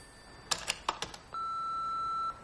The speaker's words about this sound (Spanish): En flashback, el teléfono suena en el apartamento de Lucas y Amish. Salta el contestador.